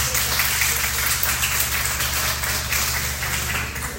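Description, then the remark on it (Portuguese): An audience applauds three people who are being thanked, in a dense, steady wash of clapping that holds at the same loud level for about four seconds, easing slightly at the end, with a low hum underneath. “Muito, vamos dar um aplauso Senhor, por eles, irmão.”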